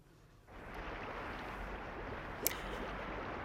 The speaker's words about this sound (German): Da hört man das Gurgeln eines Wasserfalls.